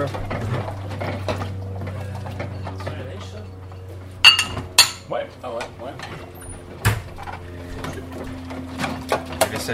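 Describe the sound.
Dried dishes, including plates, clink as they are put away into a cupboard: a quick cluster of sharp, bright knocks midway, then a few scattered clinks, over a steady low hum with people talking.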